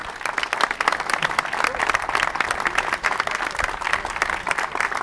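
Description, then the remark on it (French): An audience applauds steadily to welcome French Olympic champions, a dense wash of many hands clapping at an even, fairly loud level throughout, with no clear breaks or individual standout claps. “Voilà, ils auront l'occasion de, de, se présenter tout à l'heure, mais on, peut les accueillir avec euh, des applaudissements pour démarrer.”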